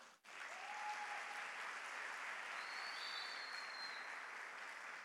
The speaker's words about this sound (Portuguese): Olha que trabalho lindo. Vamos dar uma salva de palmas para essa mulher?